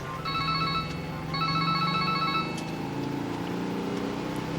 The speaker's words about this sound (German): Justus und Bob fuhren in Bobs Käfer zu dem Fotogeschäft nach Marina del Rey. Während der Fahrt klingelte Bobs Handy. Justus ging dran.